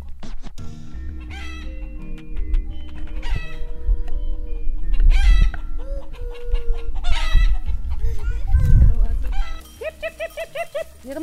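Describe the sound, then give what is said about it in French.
Chickens cluck and chatter in a busy, continuous mix of short calls, with a rooster-like crow rising briefly, while people talk in the background, on a family homestead that raises sheep and has yurts. “Stop Stop Stop voilà, donc des poules, des moutons, des yourtes.”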